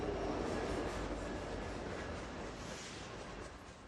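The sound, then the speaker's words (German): A heavy train carrying fracked oil rumbles steadily along the tracks, a dense, continuous roar of wheels and cars that stays loud throughout, with no voices. “Die Züge mit dem Frackingöl rollen weiterhin durchs Land.”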